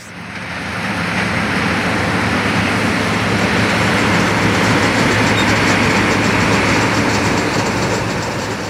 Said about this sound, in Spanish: Esto que escucháis es una cosechadora